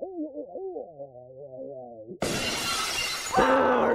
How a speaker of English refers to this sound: okay, so we have to talk about the very end of this classic, and we have this burning house and all of a sudden a motorcycle bursts through one of the stained glass windows. It's Gary Busey. Dressed as Bigfoot.